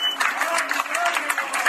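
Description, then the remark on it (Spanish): Steady, dense applause from a crowd at a feminist street march as women police officers finish their work, a continuous crackle of many hands clapping at once with no pauses, fairly loud throughout. “Mujeres policía terminan trabajo en marcha feminista entre aplausos.”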